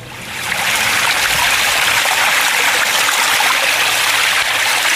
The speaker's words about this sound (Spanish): aunque en Galicia no es un bien escaso, el agua es muy apreciada por los gallegos y la acaban de poner en valor a través de sus fervenzas que comentábamos al principio, sus increíbles saltos de agua